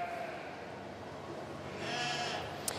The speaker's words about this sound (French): nous sommes en compagnie euh, des moutons et des agneaux.